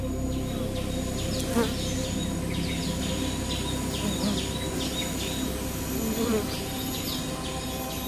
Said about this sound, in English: Hollywood movies layer bee sounds to create a sense of foreboding but real bees are rather more quiet. By carefully placing our binaural mic, you can hear a few individual bees buzz past.